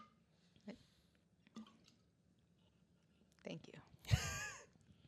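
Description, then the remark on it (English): Soft squishes of a lime being pushed down into a beer bottle, a few quiet wet presses followed by a louder squelch and brief foamy fizz near the end. “I need this lime to corona. be pushed down into my beer, though.”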